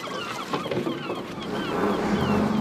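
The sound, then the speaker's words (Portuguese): Seagulls call repeatedly at a fishing harbour in Dunkirk, northern France, in the early hours before dawn, their harsh squawks overlapping over a steady background rumble of water and boat engines, with no one speaking. “As gaivotas são as primeiras a anunciar agitação no porto de pesca.”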